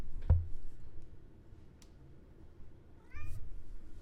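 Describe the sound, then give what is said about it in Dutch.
A white-and-black cat meows once, a short, rising and falling cry around three seconds in, with a sharp thump or click near the start and a quiet hum throughout. “Hier live eh, op de radio kennis maken met deze kat.”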